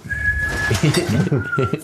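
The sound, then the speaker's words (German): A thin, high-pitched human whistle holds a steady note, breaks off, then returns later, lying quietly beneath a person talking. “Wenn man jetzt ich würde auch gerne nach, nach einem Bier pfeifen, was da ah, ja.”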